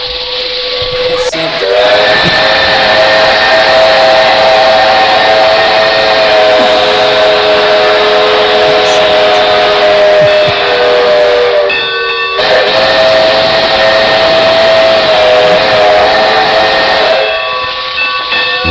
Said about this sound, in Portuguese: lembro muito dessa Maria Fumaça, do seu, oh, oh, oh. dos seus vagões maravilhosos, vagões de passageiros, etc. Vagão restaurante, meu Deus, meu Deus.